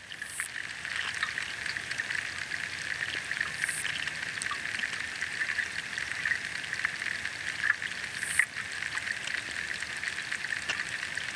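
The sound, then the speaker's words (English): Steady underwater crackling and fizzing, like frying, recorded with hydrophones underneath the water at the old quay on a meander of the River Ure, with a persistent high hiss and scattered clicks and pops throughout; a dense texture with no voices. “This is a recording taken using hydrophones uh, underneath the water at the old quay on the meander of the River Ure.”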